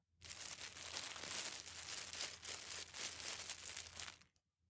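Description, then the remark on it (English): Continuous crinkly rustling, like paper or plastic being handled, steady and at some distance for about four seconds before stopping abruptly, made by someone moving near a bed. No voices. “All he heard in response was some rustling in some distance.”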